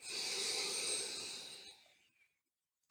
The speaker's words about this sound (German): Also geh mit deiner Aufmerksamkeit zu deinem Atem und atme bewusst ein und aus. hör dich selbst atmen. Und dazu kann es hilfreich sein, dass du etwas tiefer atmest, um dich zu hören. Du atmest ein